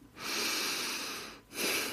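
A slow, deliberate breath drawn in through the nose, a soft airy hiss lasting over a second, followed by a brief pause and the start of a second inhale. Clear, with no talking.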